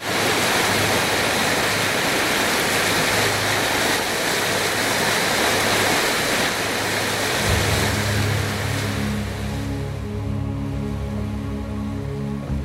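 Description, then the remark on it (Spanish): A steady, continuous rush of flowing water from the Nile River in Egypt fills the scene, fairly loud. Midway through, a low droning hum like a boat motor joins beneath the water. “Precisamente, este es el sonido de sus aguas.”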